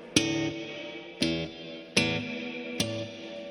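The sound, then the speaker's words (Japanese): Four strummed guitar chords played through a Strymon BlueSky reverb pedal ring out one after another, each bloom trailing into a long, shimmering reverb wash that sustains until the next strike. No voices, just the processed guitar. “今今使ってるのが前話に出てたあの高い高いやつですよ高い高いエフェクターですよ高いエフェクターっていうのはリバーブっていうリバーブ ブルースカイのあストライモンのブルースカイっていうなんかねおっさんがこうこうやってこうポワーンってなるやん”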